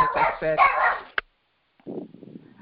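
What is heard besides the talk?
dog barking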